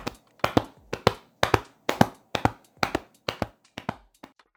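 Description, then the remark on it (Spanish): Hands slap on legs as body percussion in a quick uneven three-beat pattern, mimicking a galloping horse. The crisp pats repeat steadily about a dozen times with no voices. “Por ejemplo, en el caso 1, el galope de caballos. Los niños deben tratar de imitarlo con percusión corporal sobre las piernas.”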